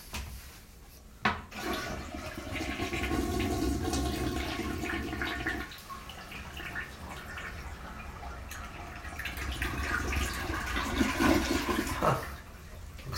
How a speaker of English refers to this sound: Okay, let's see if I have enough water to make a flush here. I might have made a bad assumption. I might have made a bad move here. Let's see.